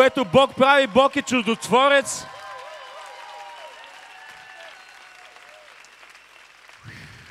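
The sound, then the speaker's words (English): A crowd claps steadily in a dense, continuous wash of applause, following a loud shouting voice at the start, with faint sustained musical tones underneath. “Clap your hands like God is a miracle working God.”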